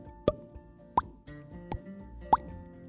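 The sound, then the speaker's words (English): Wet, squelchy pops as people are pulled free of sticky slime, four or so distinct plops spaced irregularly over a low, soft background, fairly loud. “With each time that they popped out of the slime, it left a pretty silly sound all right.”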